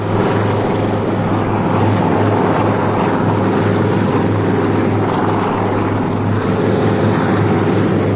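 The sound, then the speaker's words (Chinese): A helicopter flying overhead, providing cover: a loud, steady engine roar with a deep, humming low drone that holds constant for the whole stretch, with no voices. “直升飞机掩护！”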